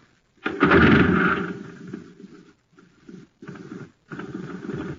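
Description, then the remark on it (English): A toy jet cycle's putt-putt engine, running on ordinary fuel, sputters loudly to life, fades, then chugs on in short uneven bursts with brief stalls between, unaccompanied by any voices. “Yes, it's just a putt putt because all it has in it is ordinary fuel.”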